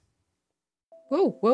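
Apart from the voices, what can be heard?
doorbell ringing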